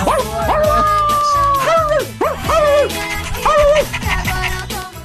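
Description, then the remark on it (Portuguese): A small dog barks and yips in quick, high-pitched bursts, some rising and falling like whiny yelps, continuing steadily for several seconds. “Vem, meu cachorrinho.”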